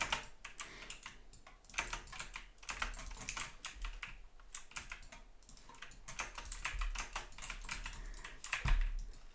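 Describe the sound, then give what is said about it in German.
Rapid, busy clatter of computer keyboard keys and mouse clicks during video gaming, fairly loud, going on steadily in irregular bursts for the whole stretch with no one speaking. “Ich wechsle auf Maus und Tastatur”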